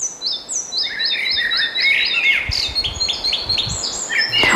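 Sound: red-breasted flycatcher song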